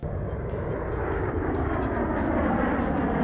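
A Boeing 747 jet airliner engine roars steadily and loudly, a dense, continuous rumble with a hissing high end that holds constant for a few seconds, with no voices.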